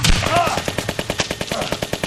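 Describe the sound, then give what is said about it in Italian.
Loud, rapid gunfire during a police raid crackles in a steady burst of sharp repeated shots, like a machine gun, with a brief high whine near the start. “Cessate il fuoco!”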